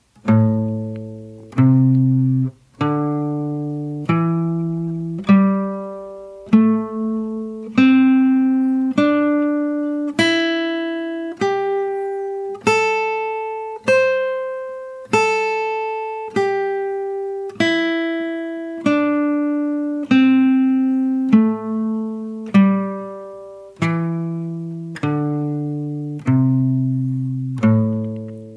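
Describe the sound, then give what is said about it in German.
A guitar plays single notes of a pentatonic scale up and down with alternate picking, one downstroke then one upstroke, each note plucked once in a steady, even rhythm, climbing to a peak and descending again. Clean and clear, with no voices. “Wenn ihr das auch könnt, schlagen wir jetzt jeden Ton immer nur noch einmal an, aber mit der gleichen Technik. Immer einmal Downstroke, einmal Upstroke.”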